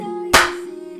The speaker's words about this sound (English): All right, here I'm gonna clap.